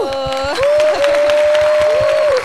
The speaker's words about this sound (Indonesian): Nanti kasih sound effect okay ya, tepuk tangan soalnya kita jari kita nih agak jauh nih menuju kepada sound effect.